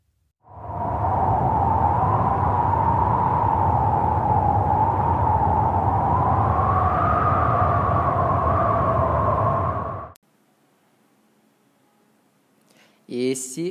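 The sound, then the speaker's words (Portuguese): Wind blows in a loud, steady rush with a faint hollow whistle, lasting about ten seconds before cutting off abruptly. After a short silence, a voice begins speaking. “É o som do vento.”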